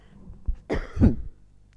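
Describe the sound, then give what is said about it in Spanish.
A person coughs twice in quick succession, fairly loud, the second cough rougher and deeper like a throat clearing, then quiet. “mira, recién que me agarró una tos, me, acordé, voy a tomar un poquito de agua, es que me traicione la voz.”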